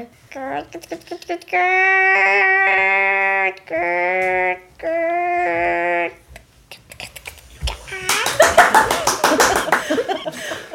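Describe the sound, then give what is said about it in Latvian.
A person imitates hens with their voice: several drawn-out, sing-song calls, then a burst of rapid, breathy clucking pulses near the end. Fairly loud, with no other talk. “Vistiņas dara tā.”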